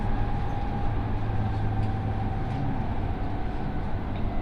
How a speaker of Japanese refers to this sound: 大阪に停まります到着の際には列車が揺れますのでつり革や手すりなどをお持ちください